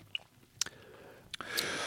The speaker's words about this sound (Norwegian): Det er ikke meningen å smatte dere rett inn i øret, men det er sånn, man sitter jo gjerne og gjør det for å kjenne på den ettersmaken.